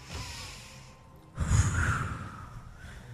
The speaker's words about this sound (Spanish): Dios, qué efecto más tecato. Qué efecto, estamos respirando aquí.